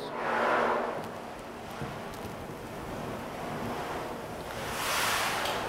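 A steady rush of wind through the tall treetops of old trees in a forest, swelling into louder gusts at the start and again near the end, a dense hiss with no voices.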